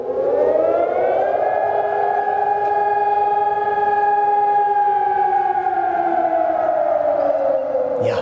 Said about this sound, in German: ein beängstigendes Geräusch, ne, das nicht nur den Haustieren Angst macht, sondern auch vielen älteren Menschen zum Beispiel. Die Warnsirenen sind heute in Essen angegangen mit einem ähnlichen Geräusch aus dem Kalten Krieg oder dem Zweiten Weltkrieg.